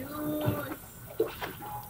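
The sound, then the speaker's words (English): Water sloshes and splashes as a dog wades through Lake Centralia toward a woman standing thigh deep, near a sandy shore on an unseasonably warm day, with a couple of sharper splashes standing out and faint, muffled voices in the background. “In a video … husband took from the sandy shore, she stands thigh deep in the water, Zeus wading toward her”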